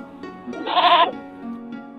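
A single goat bleat, a bright, wavering call lasting about half a second that rises out of a quieter background, then fades to a low hum.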